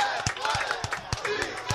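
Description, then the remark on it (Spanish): An audience applauds for Salma Hayek, a dense wash of many hands clapping with a steady pulse of louder claps roughly three times a second, and a murmur of crowd voices underneath. “Un aplauso para Salma Hayek porque sabe de la necesidad que tiene toda nuestra gente inmigrante”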